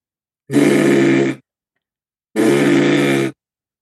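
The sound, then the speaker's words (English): A voice imitates a vibrating phone, as a trick to make someone think their phone is going off, with two loud, steady buzzing hums, each about a second long and separated by a short pause, with no talking. “it's so if if you're sitting there and you can trick someone into thinking that their their phone is going and they can't find it, and you can just do this.”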